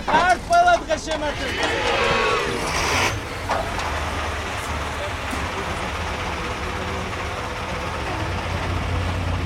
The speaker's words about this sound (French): On est parti en camion avec les 200 recrues de la Légion. Euh, des jeunes de 18 à 31 ans, une légion qui a été créée en 2014. c'est un petit peu chaotique. On monte sur les, collines aux abords de Tbilissi, on monte à 7 km plus au nord.